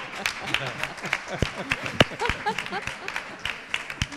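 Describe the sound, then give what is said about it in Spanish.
A crowd breaks into steady applause on Andalusia Day (Día de Andalucía), dense overlapping claps with a few sharper loud ones, while scattered voices call out and chatter underneath throughout. “bueno, un aplauso.”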